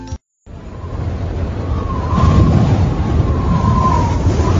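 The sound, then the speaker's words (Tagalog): A strong, steady wind of an approaching typhoon roars with a deep, rumbling low end, growing slightly louder midway and continuing without letup after a brief silent break at the start. “Naku, ang lakas na ng hangin. Paparating na ata talaga ang bagyo.”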